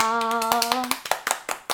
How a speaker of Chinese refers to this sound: 来，恭喜恭喜！拍手拍手！